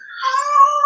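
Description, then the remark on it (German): A hungry pet cat lets out a single long, drawn-out meow, fairly loud, with no talking over it. “Ich glaube, deine Katze hat Hunger, kann das sein?”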